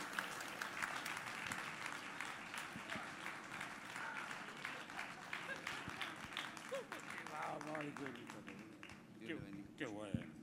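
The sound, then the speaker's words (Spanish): Sustained audience applause at a church service in the Siloé corporate temple, given in praise to the Lord as a pastor speaker is introduced: a dense, even wash of many hands clapping for about ten seconds, with a few voices calling out faintly beneath it near the end. “Con un fuerte aplauso de alabanza al Señor.”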